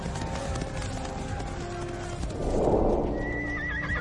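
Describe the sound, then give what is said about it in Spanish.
A horse whinnies loudly with a wavering, trembling neigh near the end, while hooves clip-clop steadily throughout, busy, like several horses moving together, as humans fight battles on horseback. “Los humanos se enfrentan en batallas a caballo por primera vez.”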